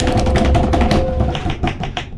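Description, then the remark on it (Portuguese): A new-sale notification alert plays loudly, a quick run of bright, clicky tapping pulses over a faint steady tone, lasting about two seconds with no talking. “Saiu venda.”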